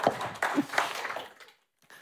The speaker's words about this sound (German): Gib mal Mario einen Applaus. Komplett spontan.